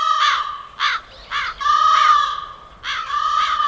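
Several crows caw in a series of harsh, raspy calls, five or six loud bursts with short gaps, some calls drawn out longer than others, with no talking.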